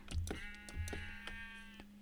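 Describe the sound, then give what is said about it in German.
A single drawn-out bleat from a sheep in a video game, with a flat, nasal pitch, fairly loud, accompanied by a few soft thuds and clicks, with no one talking. “Solange ein Schaf doppelt droppt.”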